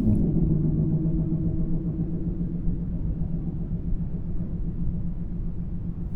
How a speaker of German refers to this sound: Als ich dann schließlich bei meiner Nachbarin geklingelt habe, hat sich herausgestellt, dass es die Wasserleitung ist, die immer